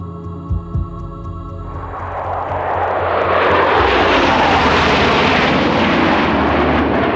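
A low engine rumble swells after a couple of seconds into a loud, broad jet roar that holds steady, like an airplane powering up for takeoff, with no voices; a Norwegian plane carrying special forces soldiers takes off bound for Afghanistan in December 2001.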